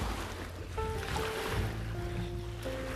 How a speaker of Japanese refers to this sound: 波の音は聞こえてますかね波内側に来ております